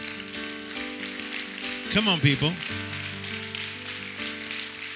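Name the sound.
audience clapping hands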